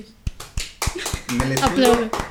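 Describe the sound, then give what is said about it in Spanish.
A handful of sparse, sharp hand claps in a loose rhythm, thin rather than a full crowd's applause, with voices talking over the second half. “Aplausos, por favor. Aplausos.”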